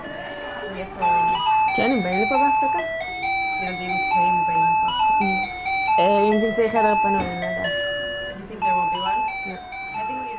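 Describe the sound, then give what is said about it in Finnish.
A school bell signalling recess at a school where children speak Hebrew and Arabic plays a bright electronic chime melody, a steady run of clear ringing notes lasting several seconds, while young voices talk and call out. “kun kellot soivat välituntien merkiksi”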